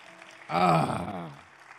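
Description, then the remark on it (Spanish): An audience breaks into applause for God for about a second, a dense wash of clapping with voices cheering over it, swelling quickly and then tapering off. “Si usted cree eso, denle un aplauso una vez más a Dios.”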